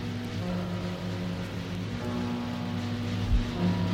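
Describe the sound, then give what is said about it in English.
A ship's foghorn, heard from miles away, drones as a long, steady low tone that holds for the whole stretch, with faint watery background noise and no voices. “You can hear foghorn miles away.”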